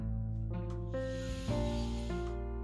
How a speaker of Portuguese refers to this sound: E agora você faz uma respiração profunda.